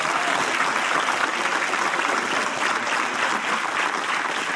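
Sustained applause from an audience, a dense, steady wash of many hands clapping at an even loudness throughout, with no voices rising above it.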